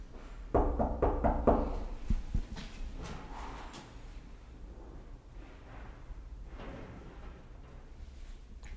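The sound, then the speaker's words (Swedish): A quick series of firm knocks on a wooden house door, loud, followed by a few fainter taps and then quiet with no answer. “ska vi knacka på igen.”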